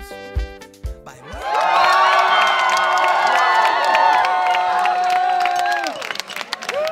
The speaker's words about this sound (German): Jubel um kurz nach 22 Uhr am Sonntagabend auf der Wahlparty des Volksentscheids Deutsche Wohnen und Co. enteignen. Nach Auszählung der ersten Stimmen hat sich eine Mehrheit der Wähler und Wählerinnen in Berlin für den Volksentscheid entschieden.